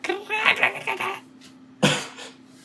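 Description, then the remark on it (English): A person mimics a cicada with a raspy, pulsing vocal buzz for about a second, then, after a short pause, makes a second harsher burst. The sound is fairly loud. “that's, that's my cicada noise.”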